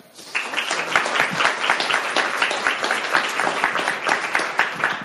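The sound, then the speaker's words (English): An audience breaks into sustained applause welcoming author Julissa Arce to talk about her book. After a brief quiet start, many hands clap in a dense, steady patter that holds at a loud level for several seconds. “So please help me in welcoming Julissa Arce.”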